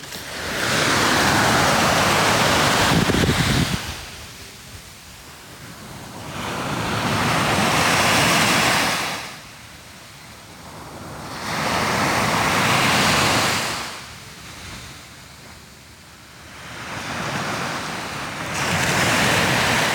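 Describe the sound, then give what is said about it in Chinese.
Ocean waves break on the shore at Yalong Bay at night in a steady cycle, each broad rushing swell rising and then fading to a softer hiss, about four surges across the stretch, with no voices. “最后给大家听一下海浪声吧，也许会很助眠。”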